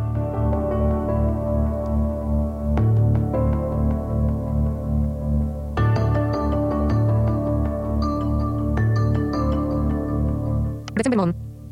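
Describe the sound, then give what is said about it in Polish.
A soft electronic alarm clock app wake-up melody plays alone, with sustained layered chords and new notes chiming in every few seconds, ending in a short bright flourish. “Kolejna dźwięk, kolejna melodia, kolejny dźwięk.”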